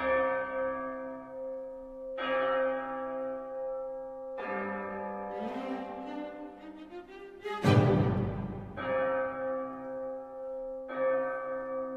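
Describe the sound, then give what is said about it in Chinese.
A church bell tolls in slow, evenly spaced strikes, each deep clang ringing out and fading; midway a rising swell of other instruments builds beneath, peaking with a loud crash before the tolling resumes. “突然你会听到钟声响起。”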